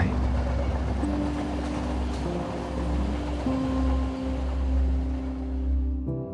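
A train rolls steadily along the rails, a continuous heavy rumble with a low droning hum running through it, fairly loud, cutting off abruptly near the end.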